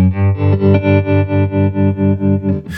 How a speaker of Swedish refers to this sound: Nu är det ju tremoloeffekt, det vill säga att... Eh, Om du drar ner djupet lite. Ja, absolut. Den står på klockan 12 djupet, så att, ja. eh, du kan ta det lite mildare. Jag håller med att det var ganska djupt.